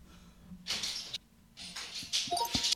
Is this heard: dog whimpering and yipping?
yes